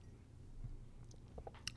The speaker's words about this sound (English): Sorry, swallowing.